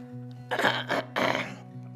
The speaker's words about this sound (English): And I tell you what, this is so real, all this uh, clearing my throat and my chest.